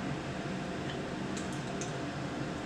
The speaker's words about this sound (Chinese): 那个因为我们是在家里操作，我还是把把我们的那个抽油烟机打开来，所以会有一些噪音然后大家要见谅一下。